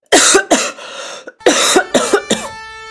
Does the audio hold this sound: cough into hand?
yes